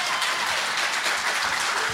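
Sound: audience applause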